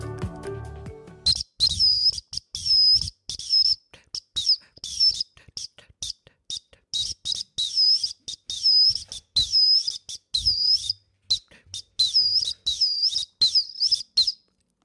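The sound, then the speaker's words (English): A shrill, high-pitched orange Acme 212 whistle plays a quick tune of short, chirpy trilled notes in rapid bursts, bright and loud, sounding almost birdlike, with no talking over it. “So instead, I'm going to play you a tune on my Acme 212.”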